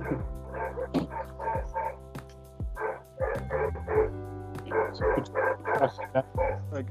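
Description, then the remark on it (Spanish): Dogs barking in quick, repeated bursts, with sharp yips mixed in. The barks come in an almost continuous run, loud, with brief pauses between volleys. “los perros.”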